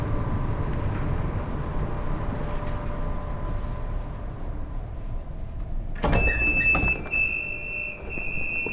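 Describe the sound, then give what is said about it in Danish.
Steady low rumble of the interior of a Danish S-train commuter train while riding toward Allerød in North Zealand, then around six seconds a clunk and a high sustained electronic tone like a door warning signal. No one speaks. “Og lige nu, der står jeg i S-toget og er på vej til Allerød i Nordsjælland.”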